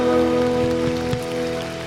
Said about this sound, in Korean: 감사와 영광의 박수 올려드릴까요?